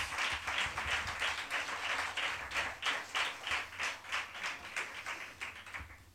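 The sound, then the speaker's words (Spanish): An audience on a live radio show applauds for about six seconds to welcome journalist and Rayo Vallecano fan Quique Peinado, a dense, steady wash of clapping with a faint rhythmic pulse running through it and no voices on top. “Y por eso recibimos con el aplauso que se merece a este periodista y aficionado y abonado del Rayo Vallecano, a don Quique Peinado.”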